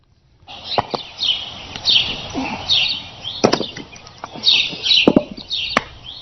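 Sharp, woody thwacks of a young man chopping wood with an axe on his driveway land at irregular intervals, loud, over a steady bed of birdsong and faint rustling outdoors.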